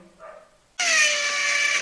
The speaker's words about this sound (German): Aber irgendwie hat dieser Hund scheinbar irgendwas gegen mich. Immer wenn ich anfange zu reden und es ist sehr hellhörig hier, fängt dieser Hund an zu bellen.